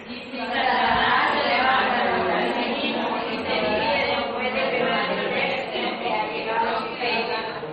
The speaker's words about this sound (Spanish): Quisiera pedirle, ¿verdad?, que leyeran fuerte esta tarde, a la cuenta de tres. Solo versículo 26. Uno, dos, tres.